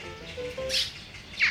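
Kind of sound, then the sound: bird, magpies chirping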